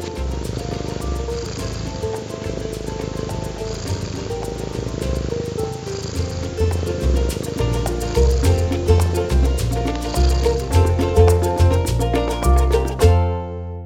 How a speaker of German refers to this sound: mein Kater Merlin beim Futtern. Das ist mein schnurrender Kater Merlin, wie er mich quasi jeden Tag äh, weckt